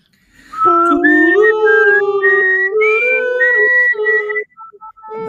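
A person whistles a short, bright jingle melody, a whistled version of a show's tururú jingle, with sustained, sliding tones for about four seconds, followed by some faint, scattered sounds.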